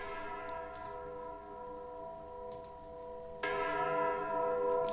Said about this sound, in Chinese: 每天教堂的钟声都会这样敲响。